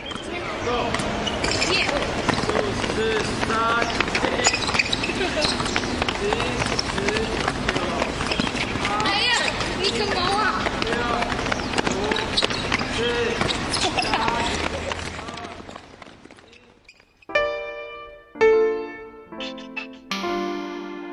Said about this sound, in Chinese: 那我们自己呢，也去收录了一些声音，像是刚才宁瑶老师提到的这个打篮球的声音。因为现在呢，这个篮球场其实还在，所以呢，每到了假日，其实也还蛮多人在这里打篮球哦。